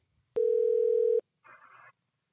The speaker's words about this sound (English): Hello. I guess the call dropped. I don't know. Yeah, I don't know. That was weird. All oh, we got, I just heard beep, beep, beep, and you're gone. So yeah, um, beeped at me too. That was odd.